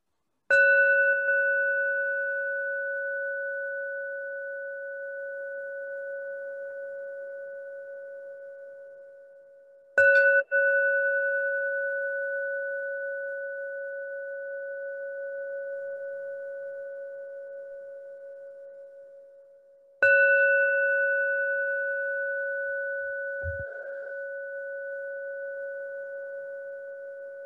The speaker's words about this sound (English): I'm going to ring it uh, three times to open up a few minutes of practice. And when you hear the sound of the bell, uh, assuming you can hear it well, uh, let that sound bring you back to your body as you're sitting.